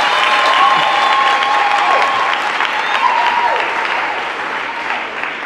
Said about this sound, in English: Clap for her. Clap for her. Clap for her.